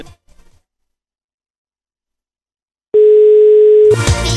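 After near silence, a telephone ringing tone sounds once, a loud, steady electronic beep lasting about a second, then cuts into a short burst of clattering, rustling noise as a man answers the phone.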